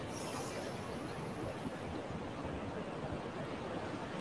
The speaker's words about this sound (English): Listen to the ocean.